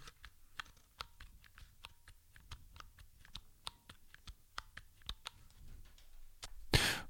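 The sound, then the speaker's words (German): Crisp key presses on the Mikey, a small 12-key iPhone keyboard, about twenty clicks tapped at an uneven pace, ending in a brief louder rustle. No one speaks. “Da drücke ich jetzt auch immer mindestens zwei Tasten. Und noch einmal zum Schluss das Mikey.”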